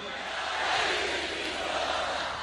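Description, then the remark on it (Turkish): A large crowd roars and chants together at a political rally held by presidential candidate and Prime Minister Erdoğan in Mersin, a dense, sustained wall of many voices filling the space with no pauses or individual words standing out. “Cumhurbaşkanı adayı ve Başbakan Erdoğan'ın Mersin'de yaptığı mitingi taşıdık radyolarınıza.”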